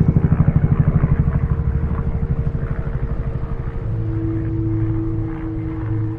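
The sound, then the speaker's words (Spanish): A helicopter flying far off: its rotor thumps in a steady rapid rhythm, then settles into a smooth, humming engine drone, with no voices present. “En la lejanía, vio un helicóptero volando.”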